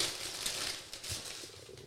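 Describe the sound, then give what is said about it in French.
Close-up crinkling and tearing of gift-wrapping paper as a gift-wrapped book is unwrapped right next to a microphone, a steady rustle with sharper rips throughout and no one speaking. “Je le fais proche du micro pour qu'on entende que je suis en train de l'ouvrir.”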